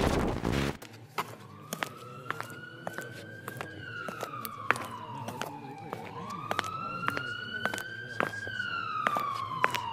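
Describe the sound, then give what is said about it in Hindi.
An ambulance siren wails in long rising and falling sweeps, steady, with sharp clicks and street noise scattered across it. “ये एम्बुलेंस किसके घर आएगी”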